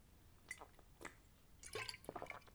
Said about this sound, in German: So, und jetzt übrigens erstmal Trinkpause. Trinken, gerade wir Frauen. Los geht's.